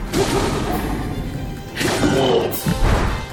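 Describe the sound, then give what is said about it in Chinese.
Dense video game battle music, the C section of the score, plays during a fight against a Lynel, with two sharp sword-hit impacts as the player's sword strikes the enemy, swishing crashes near the middle and again shortly after, punching through the steady orchestral texture. “对，您能听到它那个打击乐是在我挥剑打中敌人之后啊、一秒钟左右出现。”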